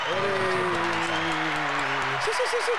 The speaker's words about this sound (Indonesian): Ya tepuk tangan sih.